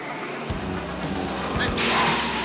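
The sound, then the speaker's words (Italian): A car roars past at speed, passing between two other cars, its engine noise rising and growing louder toward the end, with a dense rush of road and wind noise and low rumbling thuds. “Devo passare fra quelle due macchine.”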